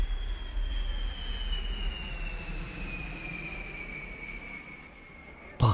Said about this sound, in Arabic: تهبط الطائرة على مدرج مطار بيروت